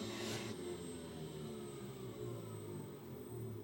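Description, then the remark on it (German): A honey extractor spins to extract fresh honey, giving off a continuous mechanical hum with a whirring, washing-machine-like drone that holds even and fairly loud throughout, with no voices. “So nach der Schleuderung würde jetzt unten bei der Honigschleuder eben der frische Honig rausfließen.”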